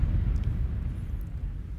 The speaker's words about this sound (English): Let me give an explosion round.